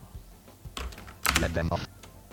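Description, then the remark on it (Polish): A few sharp clicks of a computer keyboard's Tab key being pressed in the Radiocaster program, followed by a brief burst of quick, clipped voice-like sound before it goes quiet again. “Naciskam tabulator.”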